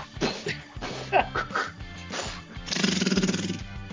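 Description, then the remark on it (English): A voice mimics gunfire with a few sharp, breathy bursts, then a quick rattling string of shots like an automatic weapon. The imitation is fairly loud, with no other talk. “sound effects aren't your strong suit, are they?”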